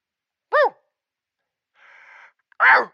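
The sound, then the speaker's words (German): A man's voice imitates a stag's call: a short, wheezy, strained bellow, then a breathy hissing inhale, then another rough, honking cry, all fairly loud. “Entschuldigung, das klang aber nicht wie ein Hirsch, eher wie ein Hund mit Asthma.”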